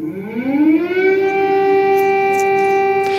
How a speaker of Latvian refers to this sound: Tomēr no rīta tika uzsākts masveida raķešu uzbrukums un gaisa trauksme skanēja nu jau visā Ukrainā.